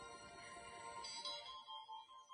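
Soft, quiet meditation music with sustained chime-like tones and gentle tinkling shimmer, played as background for a short mindfulness session, without voices and easing slightly quieter toward the end.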